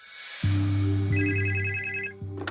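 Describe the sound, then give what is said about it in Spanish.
A telephone rings loudly in a family home on 13 December, a steady electronic ring with a strong low hum holding for about two seconds, briefly interrupted once, with no voices present. “El día 13 de diciembre se recibe una llamada en una casa de la familia que no tiene el teléfono controlado por la Guardia Civil.”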